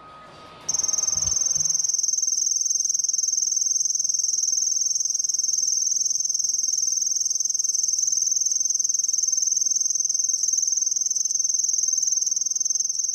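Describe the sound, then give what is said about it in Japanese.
A kusahibari cricket trills continuously, a loud, close, high-pitched 'piri-piri-piri' ringing, heard focused on the insect with the volume turned up, carrying on steadily for the whole recording after a brief faint rustle at the start. “この草ひばりっていうあの声も少し聞いていただきたいなと思うんですけれども”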